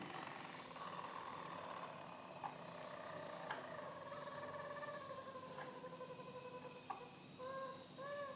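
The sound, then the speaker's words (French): A Harz canary sings a sustained flute-like song: smooth, pure whistled tones held at steady pitches with slow glides, and a few quick chirps toward the end. No one speaks. “c'est de la flûte.”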